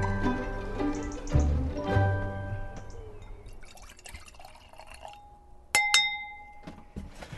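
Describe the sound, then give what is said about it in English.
Wine glasses clink together in a toast between friends relaxing in a summer house on a Saturday night, a bright chime that rings on and fades, followed by a softer second tap near the end, with faint liquid sounds beforehand. “Cheers. Super bit of wine.”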